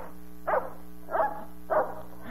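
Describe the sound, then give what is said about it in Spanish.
A big hunting dog barks three times in a steady rhythm, each woof short and fairly loud, with a low steady hum underneath and no voices. “Un perrazo cazador que nunca se le despegaba.”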